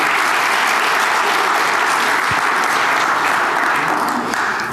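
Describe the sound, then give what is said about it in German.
Sustained applause from a sizeable audience, given for their Persian friends: a dense, even wash of clapping that stays loud and steady throughout, with no voices rising above it. “Darf ich mal einen Applaus kriegen für unsere persischen Freunde?”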